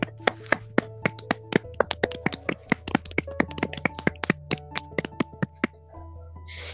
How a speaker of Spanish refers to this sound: Despidámonos con un gran aplauso a nuestros invitados de hoy. Aplausos.